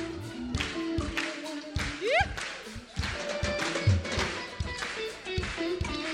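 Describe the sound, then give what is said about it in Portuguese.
A crowd claps hands in a steady rhythm, about two claps per second, keeping time with music and voices that continue underneath. “Faz palmas, vamos lá.”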